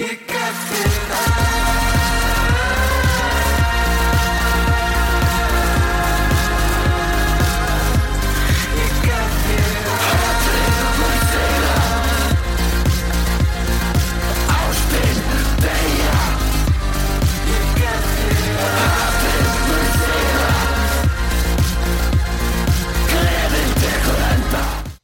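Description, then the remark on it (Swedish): Heavy industrial synth music plays loudly and continuously, driven by a pounding, repetitive low bass pulse beneath dense, buzzing electronic layers, with no voices heard. “Det här är, eh, det är tung industrisynt.”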